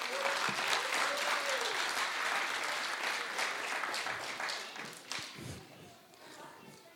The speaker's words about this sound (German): Ihr dürft jetzt wieder auf eure Plätze gehen. Ein Applaus.